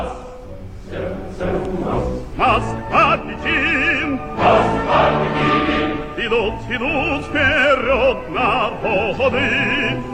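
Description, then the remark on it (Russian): A rousing Soviet-era patriotic song about friendship with China plays loudly and steadily, with massed voices singing in vibrato over a full band accompaniment in a brisk, marching rhythm. “Вот как звучала эта песня”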